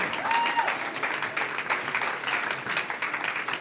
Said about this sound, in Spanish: Los que están aplaudiendo están reclamando, los otros, ¿qué está pasando?